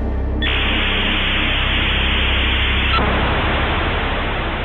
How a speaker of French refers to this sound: Ce bruit de 20 secondes, c'est le son de toute une génération, le son d'une interminable attente. Mais surtout, c'est le son d'un modem 56K qui se connecte.